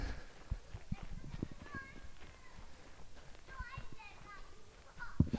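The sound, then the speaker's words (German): Several children's voices chatter and call out, with scattered high-pitched shouts and squeals over soft background noise, as a large group of children plays in the woods. “Und das sieht jetzt fast, wir spielen hier gerade Kinder im Wald auf.”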